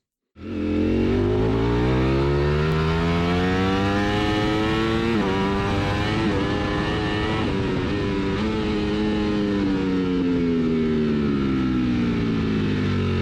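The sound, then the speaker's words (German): A V4 motorcycle engine recorded onboard, its loud throaty roar rising and falling as the rider revs through gears, continuous with no voices. “was sogar ich auf jeden Fall höre schon mal, ist, dass es eben ein V4 ist und kein Reinvierer”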